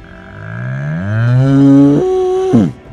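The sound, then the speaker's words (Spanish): A single long cow moo, loud, rising in pitch and holding a strained, drawn-out tone before breaking off abruptly. No voices or other sounds accompany it. “Pues nada, aquí con una vaca estábamos teniendo una conversación”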